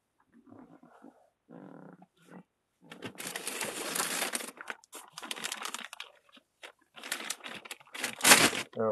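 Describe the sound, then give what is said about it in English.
A plastic bag is crinkled and crumpled in loud, irregular bursts of rustling, after a few softer, muffled sounds at the start. “Can I have that plastic bag?”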